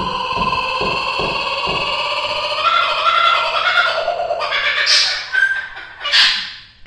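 A laughing kookaburra, an Australian bird, calls loudly and close by, a raucous run of rhythmic chortles building into harsher, rising cackles that fill the whole stretch, with no one talking.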